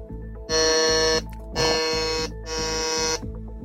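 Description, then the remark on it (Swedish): Three loud, harsh electronic quiz buzzers in quick succession, each a sustained rasping tone lasting about half a second to a second, with brief gaps between them and no talking; several contestants pressing their buzzers to answer a quiz question. “Det fantastiska ljudet är, betyder att det är flera som har tryckt in sig.”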